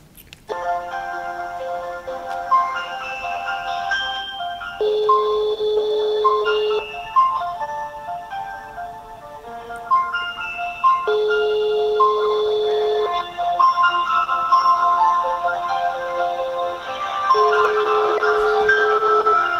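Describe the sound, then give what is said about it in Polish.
An outgoing phone call rings with a steady electronic melody of sustained tones shifting every few seconds, continuing unanswered for the whole stretch at a constant moderate volume, with no one talking. “To i dzwonimy do Lili w takim razie.”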